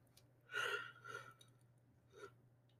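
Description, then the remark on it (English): A breathy yawn swells and trails off in a long exhale, followed by a softer breath a moment later, over a faint low hum with no talking. “I'm yawning a lot this morning.”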